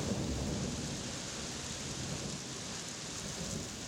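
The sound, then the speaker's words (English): Steady, dense rain hisses without a break in Prague, while a low, rolling rumble of thunder sits underneath throughout. No voices, just the constant wash of the downpour. “It's a Thursday, and it's raining in Prague.”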